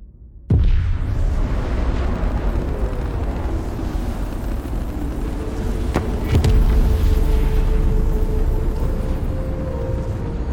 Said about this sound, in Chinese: 聚变发动机启动了，推进器发出幽幽的蓝光，飞船缓缓地穿过了宇宙之门。